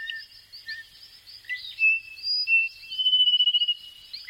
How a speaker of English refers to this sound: In Les Pitons du Carbet, the volcanic mountains in northern Martinique, thousands of small frogs emerge from the lush rainforest as night falls.